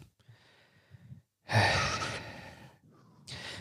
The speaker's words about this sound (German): Was wäre das Nächste? Dreimal schnaufen. Dreimal schnaufen.